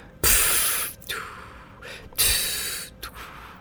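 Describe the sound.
A voice imitates the steam hiss of a clothes iron during ironing: two long, loud hissing bursts, each followed by a shorter, softer puff, with no talking.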